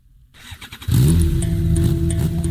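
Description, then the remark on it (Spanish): A motorcycle engine starts after a few quiet clicks, then revs up loudly, its pitch swinging upward before settling into a steady, throaty idle with no voices. “Las motocicletas económicas están contaminando más que un auto promedio y no hay ley ambiental que lo impida.”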